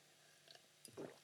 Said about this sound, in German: Vorher nehme ich noch einen Schluck Wasser.